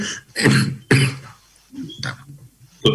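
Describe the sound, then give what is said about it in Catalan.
A person sneezes, with sharp, explosive bursts separated by brief pauses and throaty breaths, with no talking. “Salut.”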